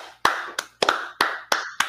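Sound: hand clapping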